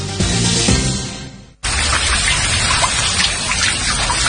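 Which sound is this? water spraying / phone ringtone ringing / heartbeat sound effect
water spraying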